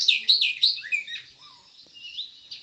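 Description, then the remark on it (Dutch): A small songbird chirps at a campsite near the Slotenmeer in Friesland in summer, in quick, high-pitched bursts, with several bright twittering phrases up front and softer trailing notes after, alone without any talking. “En op de camping, vlakbij het Slotenmeer, werd ik verrast door het vogeltje dat je nu hoort.”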